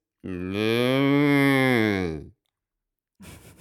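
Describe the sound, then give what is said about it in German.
A person imitates a calf's moo with one long, drawn-out, wavering vocal call lasting about two seconds, followed after a pause by a brief burst of other vocal sound. “Also das eine ist ein Kalb, ja.”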